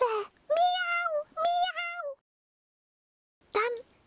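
An injured cat, its bleeding wound just bandaged, meows several times in quick succession, clear, with drawn-out tonal cries, then falls silent before one last short meow.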